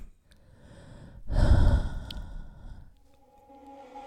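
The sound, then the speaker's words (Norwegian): A heavy, breathy exhale blown right into a microphone, loud, swelling up and then trailing off into quieter breathing with no talking. “Bare puste litt sexy mikrofon i mellomtida.”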